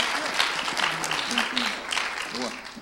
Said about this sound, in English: and so let's give her some applause.